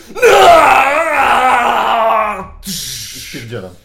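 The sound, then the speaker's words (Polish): A person's voice imitates a monstrous roar: a loud, wavering growl held for about two seconds, then a short breathy rasp and a brief lower vocal tail. “Słychać straszliwy ryk.”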